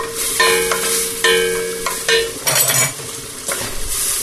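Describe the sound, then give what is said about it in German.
Steady crackling sizzle of a thawed mixed-mushroom blend (Butterpilze, Egerlinge, oyster mushrooms, Stockschwämmchen and champignons) sautéing in a pan, with a few scraping stirs and light clinks of a utensil against the pan breaking through the hiss. No one speaks. “Das jetzt hier angeschwitzt, dann können wir die mal drauf tun.”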